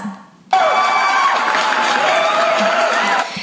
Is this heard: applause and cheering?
yes